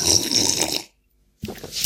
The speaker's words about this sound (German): Jetzt muss ich erstmal theatralisch einen Schluck Wasser trinken.